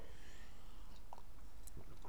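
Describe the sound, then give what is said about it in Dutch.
Someone takes a quick sip of water, with a couple of soft wet mouth clicks and a swallow over a quiet, steady background hiss. No one speaks. “Even een slokje water, sorry.”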